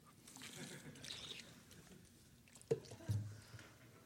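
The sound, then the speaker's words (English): Someone takes a water break, drinking from a Gatorade squeeze bottle, with soft wet sips and swallowing sounds, a sharp click near the end, and a gulp. “Speaking of Nike, I got like this ridiculous Gatorade bottle. Let me take a water break.”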